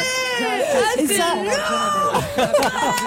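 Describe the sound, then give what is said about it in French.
Singer Camélia Jordana, very moved, lets out a loud, emotional cry of joy after a winner is announced at a music awards show, her voice wavering and sliding up and down in pitch, with excited chatter mixed in. “Et ça, c'est le cri de Camélia Jordana.”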